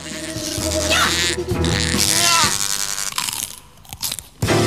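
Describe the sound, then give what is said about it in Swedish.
Loud crunching of crispbread, bitten and chewed in dry crackly bursts within a psychedelic song, over a dense, swirling musical backdrop of sustained tones, fading briefly near the end before a final crunch. “Och knäckebröd.”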